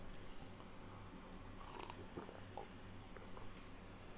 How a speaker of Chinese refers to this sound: 一直在喝，咕噜咕噜的，这都能听见。我这麦克风太好了，我离离远一点。